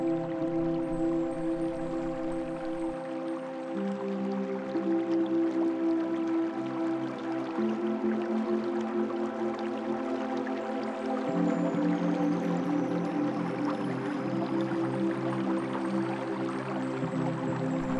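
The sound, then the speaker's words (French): A gentle stream flows and trickles continuously, with soft bubbling throughout, mixed under steady sustained drone-like musical tones at an even, moderate level. No one speaks. “Imaginez les rayons du soleil se reflétant sur ce ruisseau que vous entendez.”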